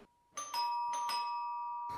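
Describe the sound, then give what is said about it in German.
A doorbell at the front door of a house rings twice in a clear ding-dong pattern, bright sustained chime tones ringing on and decaying, with some rustling noise around the strikes and no talking. “Dann wäre es doch gut, wenn wir hier mal bei den Leuten an der Haustür klingeln.”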